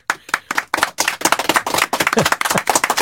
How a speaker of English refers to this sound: Hey, we're in studio. We got a big audience. Everybody applaud.